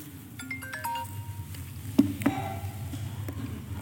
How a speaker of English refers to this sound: I got a phone call.